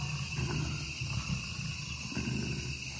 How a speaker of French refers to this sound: Puis deux minutes plus tard, à la cinquième minute de l'enregistrement, résonne le grondement menaçant du jaguar.